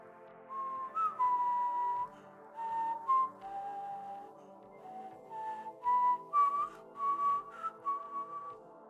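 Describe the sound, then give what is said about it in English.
Someone whistles a melody while walking back to an office, a clear, bright tone gliding between notes in short phrases with brief pauses, continuing steadily throughout with no talking. “I found myself whistling a tune I'd heard coming out of Kilgore's apartment window”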